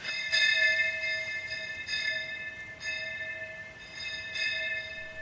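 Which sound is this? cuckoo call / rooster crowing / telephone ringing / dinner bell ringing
dinner bell ringing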